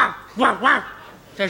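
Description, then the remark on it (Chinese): A man's voice imitates a dog barking with a couple of loud, arching woofs, then briefly speaks in a questioning tone. “这听出来了，这是狗叫唤呢。”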